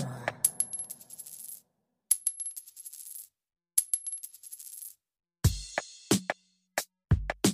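A coin is dropped several times onto a hard surface, each fall a bright metallic clatter of quick bounces with a ringing tone that dies away, followed by a few sharp clinks. Clear, no talking.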